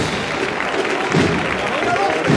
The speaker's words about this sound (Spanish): Rompe de nuevo el aplauso.